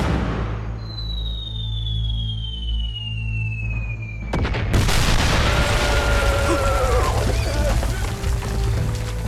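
A thin, falling whistle over a low steady hum gives way to a sudden pair of heavy cannon blasts, two cannon shots fired on command, followed by several seconds of loud, crackling rumble as the explosion rolls on.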